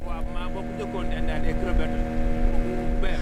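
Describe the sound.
A boat motor drones steadily on a boat in mangrove tidal flats, a constant low hum with a tonal whine that holds throughout, while voices talk over it.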